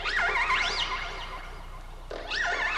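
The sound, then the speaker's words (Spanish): Whale vocalizations: high, wavering tonal calls that swoop up and down in pitch, fading out for a moment before a fresh burst of sweeping, moaning song returns, heard alone. “Esta fue la voz de las ballenas, que emiten toda una variedad de sonidos, aunque se sabe poco de cómo son producidos y captados.”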